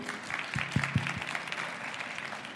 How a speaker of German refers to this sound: Danke nochmal. Applaus auch für dich.